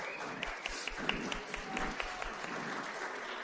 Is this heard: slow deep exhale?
no